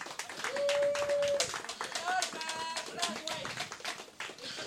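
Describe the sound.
An audience claps steadily for about five seconds, a dense, even patter of many hands, with a sustained whistle-like tone and scattered cheering voices rising above the applause.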